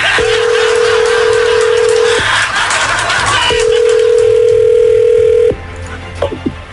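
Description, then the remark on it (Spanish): A telephone line tone as a phone call is dialed: two long, steady, mid-pitched electronic beeps of about two seconds each, separated by a short pause, over a hissy line, followed by a few faint clicks. “Eh, vamos a marcarle,”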